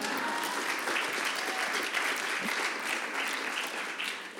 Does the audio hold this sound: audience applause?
yes